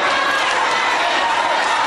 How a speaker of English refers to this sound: because the crowd i think is yelling at the veteran